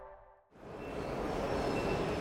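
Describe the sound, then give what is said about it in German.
Railway platform ambience at track 7 of Berlin Hauptbahnhof, one of the lowest platforms, on a cold Friday morning in December 2022, just before 8: after a brief quiet moment, a steady wash of rumbling, hissing noise swells up and holds, with a faint high tone running through it. “Gleis 7 am Hauptbahnhof Berlin an einem Freitagmorgen im Dezember 2022, kurz vor 8.”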